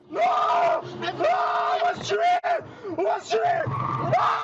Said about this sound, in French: Paniqué, le chauffeur hurle pour alerter autour de lui.